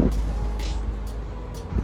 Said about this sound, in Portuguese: Aqui essa casa é de frente para a BR. Né? Então, como é diferente para BR, passa muito caminhão, passa até trem. Espero que não passe um trem aqui. Se passar um trem, eu paro. Mas, é, então passa carro, passa trem.